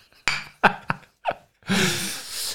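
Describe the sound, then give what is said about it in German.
Glasses clink together in a toast, four quick bright knocks with a brief ring, followed by a steady hissing, fizzy noise. “Prost.”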